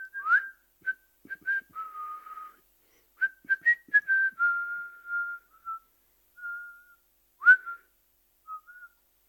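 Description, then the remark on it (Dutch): Two people whistle a tune together outdoors, one walking downhill from a hilltop and the other joining in with a second whistled part: clear, short melodic phrases of sustained and gliding notes with brief pauses between them. No one speaks. “Fluitend zet ze de afdaling in.”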